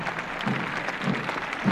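Steady applause from the public at a parade as nurses from the school of the Eva Perón Foundation march past, a dense wash of many hands clapping at an even, moderate loudness throughout, with no voices standing out.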